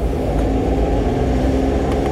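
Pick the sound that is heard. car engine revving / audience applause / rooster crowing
car engine revving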